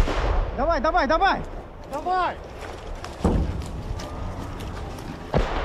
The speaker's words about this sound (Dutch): Dit is een Oekraïnse aanvalsbrigade ten zuiden van Bakhmut vorige week. Terwijl de soldaten door het struikgewas oprukken, worden ze door de Russen onder vuur genomen.